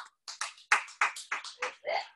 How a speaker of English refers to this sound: We plan on giving her her yearly salary in one day. Yes, that's what clap for.